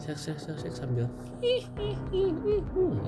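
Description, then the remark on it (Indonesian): A voice imitates the srek srek sound of shuffling footsteps with four quick, breathy scraping syllables in a steady rhythm, followed by ordinary speech and a hesitant hum. “nah, pas gue denger bunyi langkah itu srek srek srek srek”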